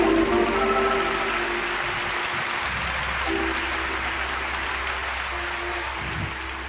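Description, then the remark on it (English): Steady applause from a crowd, a dense wash of many hands clapping at an even loudness throughout, with a low hum running underneath. “Why don't we give HDR a round of applause?”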